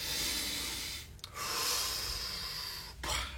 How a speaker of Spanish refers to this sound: te pones fuerte, espalda recta, levanta el pecho, saca la quijada eh, respira profundo.